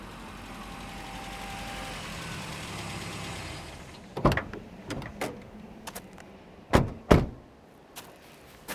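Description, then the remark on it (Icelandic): A car engine rumbles steadily as the vehicle drives up to an old farmhouse, then cuts out as it stops, followed by a few sharp door-like clunks in the quieter air. “Við kerðum að gamlum sveitabæ.”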